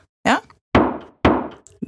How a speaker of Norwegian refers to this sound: Bank i bordet.